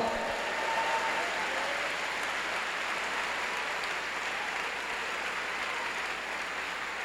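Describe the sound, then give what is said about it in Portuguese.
An audience applauds the Lord in a steady, dense wash of clapping that holds at an even, fairly loud level for several seconds, with no voices standing out. “Vamos dar um aplauso ao Senhor.”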